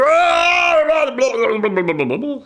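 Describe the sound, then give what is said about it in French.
A person's voice imitates a polecat's scream: a loud, sustained high wail that breaks into shaky, warbling cries before trailing off after about two seconds. “Ça, c'est le cri du, du, putois.”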